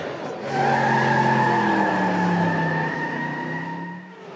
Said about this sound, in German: Ein bisschen später kommen die drei an einem Bretterzaun hinter dem Tempodrom an. Von hier kann man die Rennstrecke immerhin schon hören.